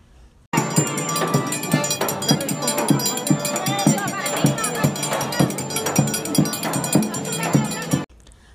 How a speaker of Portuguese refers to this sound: Todas as músicas que você vai ouvir aqui, incluindo esse forró que estava tocando, foram captadas diretamente da avenida que tanto amamos. Então feche seus olhos e passeie pela Paulista com a gente.